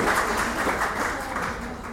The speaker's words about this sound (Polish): Tak? To wielkie brawa. Z mojej strony pełen szacunek. Gratuluję.